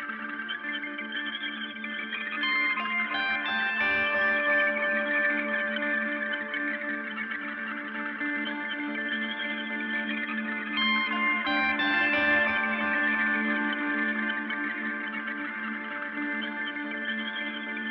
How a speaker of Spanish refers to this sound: nos despedimos con música local como siempre. Ahora escuchamos a los chicos de … con su tema …